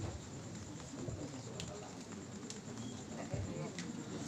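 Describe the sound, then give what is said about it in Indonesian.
Steady rain patters down in a dense, even wash of noise, with faint murmuring voices and occasional small taps or drips breaking through the constant hiss. “Mudah-mudahan insya Allah dipindahkan hujan Amin”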